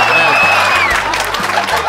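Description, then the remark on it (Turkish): An audience breaks into steady applause mixed with a few cheers, a dense wash of clapping that stays loud through the short moment, with some crowd voices underneath. “Ya alkışlamayın mahkeme kararıyla kullanamıyorum”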